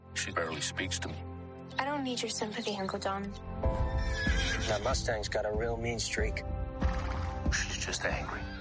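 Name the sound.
horse neighing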